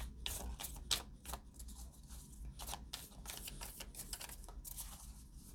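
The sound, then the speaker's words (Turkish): Crisp tarot card shuffling with rapid papery riffles and flicks, followed by result cards being slid and drawn from the deck, steady and continuous with no talking. “sonuç kartları çekeceğim.”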